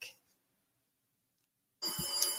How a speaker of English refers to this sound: Well, certainly. I I'm sorry, the phone is ringing and I can't run to get it.